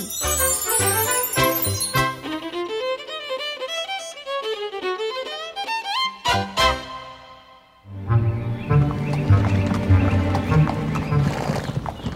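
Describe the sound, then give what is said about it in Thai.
A horse whinnies with long, wavering cries, then hooves clip-clop steadily along as a man drives a horse-drawn cart along a road, with faint jingling mixed in. Loud, with no talking. “มีชายคนหนึ่งขับเกวียนไปตามทาง”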